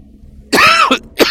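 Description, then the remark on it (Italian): A short cough: one rough, voiced hack followed by two quicker, smaller bursts, fairly loud against a quiet background with no talking. “Un altro colpetto di tosse.”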